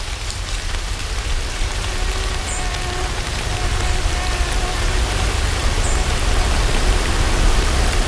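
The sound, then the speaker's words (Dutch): Soft, steady rain pattering on leaves and branches, a dense continuous hiss of countless small drops with no voices, holding an even level throughout. “Maar met een zachte regen die alleen maar de boom net raakt...”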